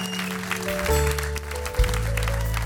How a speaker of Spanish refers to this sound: Le dan un fuerte aplauso a su Dios.